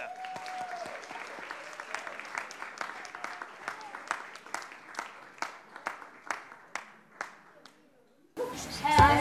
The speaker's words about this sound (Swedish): Så ska vi ta och välkomna fram Solstrålen med en stor applåd.